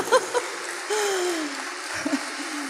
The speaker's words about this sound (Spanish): Bueno, ese es el Señor, denle un aplauso.